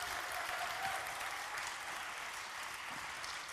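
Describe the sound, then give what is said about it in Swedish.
A crowd applauds steadily, a dense wash of many hands clapping at an even, fairly loud level throughout, with no voices standing out. “Ge honom en applåd till tycker jag.”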